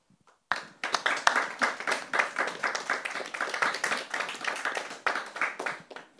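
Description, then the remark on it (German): Thin, scattered applause from a small audience during the Corona pandemic, after a spoken poem at a livestreamed event; individual claps distinct and uneven in rhythm, steady for several seconds after a brief quiet start, with no voices. “Ja, das sind so bittere Corona-Momente, so schüttere Applaus.”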